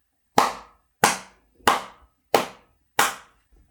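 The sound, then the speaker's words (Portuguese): Five slow, evenly spaced handclaps from a single person, each a sharp, bright smack with a quick fade, heard on their own with no talking. “E por tudo isto, por tudo isto e tudo aquilo que tu tens conseguido, o meu mais honesto e sincero aplauso.”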